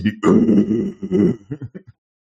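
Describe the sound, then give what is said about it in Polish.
A voice makes a low, rough growling rumble imitating a revving car engine, sustained for about a second, then breaking into a few short sputtering bursts that trail off. Fairly loud. “im się bardziej zbliżam, tym jest głośniejsza, tak samo jak warkot silnika. Tak jakby sam samochód zaczął growlować”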